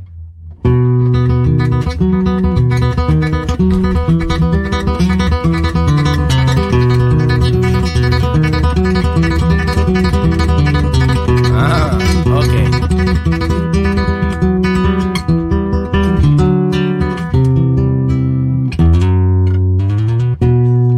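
An instrumental version of Malagueña plays loud and steady, with rich sustained harmonies, a deep bass line and bright, shifting melodic notes, and no voices.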